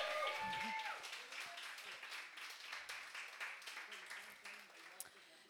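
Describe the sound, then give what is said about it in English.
An audience applauds as the next guest is introduced: a steady, dense patter of many hands clapping at once, fairly loud and even for several seconds before thinning out at the end, with a brief cheer or voice near the start. “Um, so yeah, yeah, you can actually applaud.”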